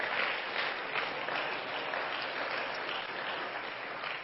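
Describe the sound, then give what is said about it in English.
An audience at a church service claps their hands for the guests in sustained, steady applause, a dense wash of many overlapping claps at an even volume for several seconds, with no voices on top. “If you are a guest here, why don't all the home folks just give all of our guests a good hand clap?”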